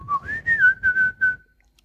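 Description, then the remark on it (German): A person whistles the Miracoli advertising jingle melody: a rising opening note, then four or five clear, connected notes at a steady pitch, ending after about a second and a half with no talking. “als Pfiff, das ist doch auch eigentlich ganz schön als Familienpfiff.”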